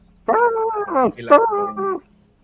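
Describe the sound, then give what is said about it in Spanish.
A person imitates a dog barking back when spoken to, with a few drawn-out, howling yelps in quick succession, loud, with no other sounds around them. “Cuando le habla, le vuelve a ladrar.”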